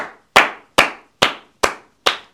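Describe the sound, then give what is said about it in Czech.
Applause from listeners rewarding the winner of a debate, heard as five loud, crisp claps at an even, steady pace, each one sharp and quickly fading, with no voices. “Eh, ne, pojďme nechat, vážení posluchači, kdybyste teď mohli odměnit Miloše Čermáka, vítěze této debaty, potleskem společně s Ludkem Staňkem.”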